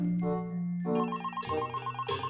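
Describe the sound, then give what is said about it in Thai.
A phone rings with an incoming call, its melodic ringtone playing a short electronic tune, bright tones stepping through a quick repeating pattern, clear with no talking over it. “จู่ๆเสียงโทรศัพท์ของเจลีก็ดังขึ้น เมื่อเจลีรับสาย จึงได้รู้ว่าคนที่โทรมานั่นคือลุงทองดีนั่นเอง”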